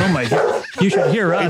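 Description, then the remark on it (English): A dog barks and yips in short bursts, its voice mixed in with a person talking over it. “That's my dog”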